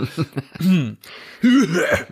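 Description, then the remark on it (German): A voice imitates throat-clearing coughs: a few short rough bursts, then two longer voiced, exaggerated hacks with gliding pitch, loud and separated by brief pauses. “ja, hust, hust.”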